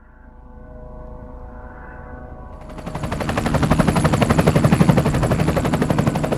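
A helicopter's engine drone grows louder and suddenly bursts into a loud, rapid, steady chopping of rotor blades that keeps pounding, with no voices.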